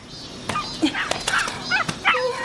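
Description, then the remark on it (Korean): A dog whimpers and whines in short, high-pitched yelps and cries, several brief plaintive sounds in quick succession with soft clicks between them, fairly faint overall, as it scurries to hide behind a woman. “여자가 나타나자 개는 끙 하고 앓는 소리를 내더니 종종 걸음으로 여자 뒤에 숨었다.”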